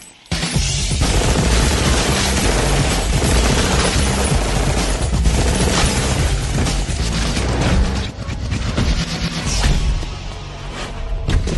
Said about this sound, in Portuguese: Matrix é um, um, um negócio curioso, porque né, essa, essa cena aqui, quando eles têm descarte de armas, né? Porque eles estão atirando. Sim. E aí, ao invés de eles trocarem o pente, eles jogam fora a arma.